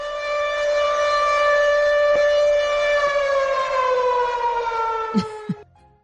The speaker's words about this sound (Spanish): por favor pon otra vez la alerta a niños, ahora. Señor, ¿qué está ocurriendo? ¡Saquen a los niños! ¡Saquen a los niños! Advertencia, saquen a los niños de este podcast.